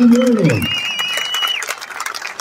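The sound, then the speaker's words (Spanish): A crowd at a boxing match claps steadily for the two boxers after their four-round bout, a dense, sustained burst of applause, with a brief voice at the start and a thin high whistling tone riding over the clapping. “Vamos, y caballeros, un fuerte aplauso para esos verdaderos hombres de señora.”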